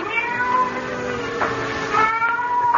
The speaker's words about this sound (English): I, I had great difficulty in falling asleep that night. Suddenly, the silence was broken by the faint crying of a cat